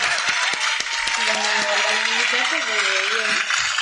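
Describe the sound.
A crowd applauds with steady, dense clapping throughout, while a voice calls out over the top, its tones rising and falling above the noise.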